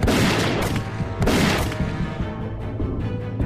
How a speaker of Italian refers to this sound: Poi, all'improvviso, nel silenzio della valle, uno sparo e subito dopo un secondo.